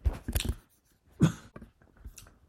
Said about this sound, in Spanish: Perdón por la tos, me ha dado ahí un tabardillo.